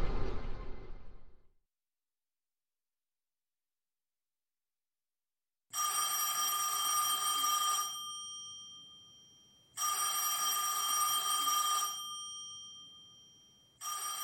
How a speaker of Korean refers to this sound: 시끄럽게 울려대는 전화 소리에 잠에서 깼을 때 그는 옆 침대가 비어 있다는 사실을 이미 알고 있었으며 아무리 잽싸게 전화기가 있는 곳으로 간다 해도 이미 늦었다는 사실 역시 알고 있었다.